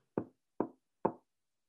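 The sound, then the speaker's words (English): Three evenly spaced knocks of knuckles rapping on wood for luck, fairly crisp, each with a short dull thud and quick decay, with no talking. “We're going undefeated, knock on wood.”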